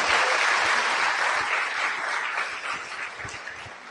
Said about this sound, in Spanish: Bueno, los empresarios, vamos a darles un fuerte aplauso a nuestros invitados.